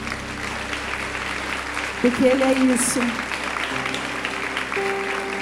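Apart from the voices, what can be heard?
audience applauding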